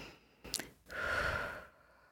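One long, deliberate exhale, a steady breathy rush lasting under a second, preceded by a brief soft intake and followed by quiet, made at the start of a yoga breathing check-in on a mat.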